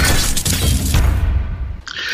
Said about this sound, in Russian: но может быть сейчас империя, говорят, наносит какой-то удар, давайте отбивочку.